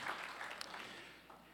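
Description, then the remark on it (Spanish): A crowd applauds a 90-year-old woman in the audience, a steady, dense patter of clapping that stays fairly even throughout, with a few sharper claps standing out near the middle. “Un aplauso acá a esta señora.”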